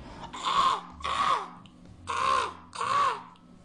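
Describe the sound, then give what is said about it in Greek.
Four harsh, drawn-out caws of black crows with ash-coloured beaks, flying around a towering stone castle, come in two pairs, loud, with a low hum underneath and no talking. “Το κάστρο ήταν πανύψηλο και ολόγυρά του φτερούγιζαν μαύρα κοράκια με ράμφι στο χρώμα της τάχτης και γκρίζες διχτερίδες με φτερούγες στο χρώμα της κουριάς.”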